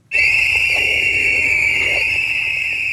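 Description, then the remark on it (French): Many whistles blown together by a few dozen people gathered in the evening outside the hospital in Wuhan on 7 February 2020 to pay tribute to a doctor who had died. A sustained, piercing shrill chorus that starts abruptly and holds steady and loud, with faint murmuring crowd noise underneath. “ce 7 février, des sifflets retentissent le soir même devant l'hôpital de Wuhan.”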